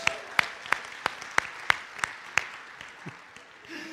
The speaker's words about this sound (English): Let's give them a big round of applause.